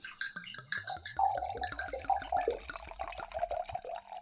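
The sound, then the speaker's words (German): Wine glugs out of a bottle into a glass, a fast, steady run of gurgling pulses lasting several seconds, clear with no voices. “So mir so ein schönes Weinchen.”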